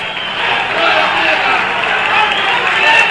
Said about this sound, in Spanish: a ver, vamos a escuchar el, ambiente, vamos a subirlo. ¿Qué dicen los hinchas?